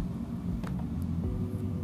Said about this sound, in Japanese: 朝の通勤中の車の中からお届けしております